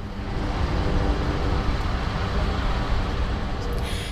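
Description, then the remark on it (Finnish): A steady, dense rumble of road traffic fills the scene, a continuous low-heavy roar of passing vehicles at moderate loudness with no pauses, as heard from beside a busy roadside parking area outside Berlin. “Berliinin ulkopuolella sijaitsevalla parkkipaikalla hyppään puolalaisen kuorma-auton kyytiin.”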